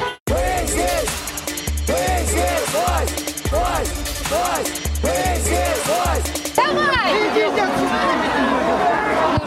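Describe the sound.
Loud, continuous chatter from a dense protest crowd moving across Tverskaya Street despite cars and breaking down barriers, many overlapping voices rising and falling, with a low rumble underneath and a surge of louder voices near the end.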